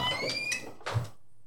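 A person pulls a door shut behind them: a brief squeaky scrape, then a single dull thud as it closes, followed by silence. No one speaks.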